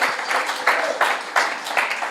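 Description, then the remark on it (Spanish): A crowd applauds with a steady, dense patter of many hands clapping, swelling in several bright bursts over about two seconds, fairly loud throughout with no voices standing out. “Den un aplauso a Dios porque estamos aquí.”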